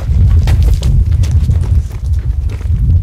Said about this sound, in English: And you're you're walking through the black, and all you hear is like the sound of our feet crunching.